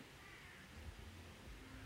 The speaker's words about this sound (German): Sagen die Raben sogar, ja.